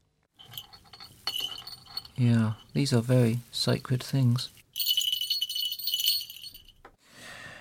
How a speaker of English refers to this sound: These are two small hawk bells worn on the, the legs of a hawk, a trained hawk. And they were made somewhere in Pakistan in the early 1970s. I imported them from Lahore.